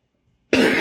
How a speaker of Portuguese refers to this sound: Desculpem, tossi aqui.